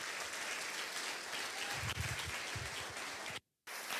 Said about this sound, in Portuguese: Então aplauda a palavra de Deus, recebendo o pastor